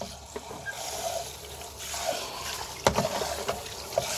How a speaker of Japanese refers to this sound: ジョボジョボ音が聞こえる。